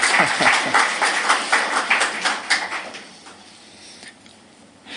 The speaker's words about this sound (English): Yep, round of applause.